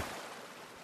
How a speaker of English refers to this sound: The water around you starts churning a bit.